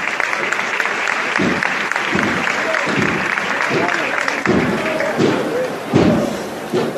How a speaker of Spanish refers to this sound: Vuelven a romper los aplausos.